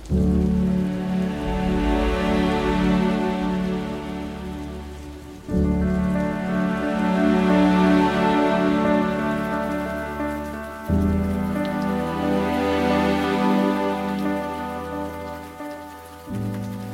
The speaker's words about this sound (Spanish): Aunque seguía lloviendo mucho, la fuerza de la tormenta amainó.